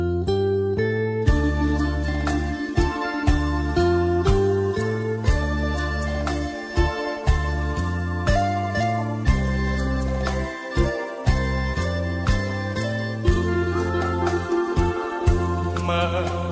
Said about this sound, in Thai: เดี๋ยวช่วงนี้เราเบรกฟังเพลงกันก่อน ช่วงหน้ากลับมาอยู่กับผมต่อกับ Talk to You ครับ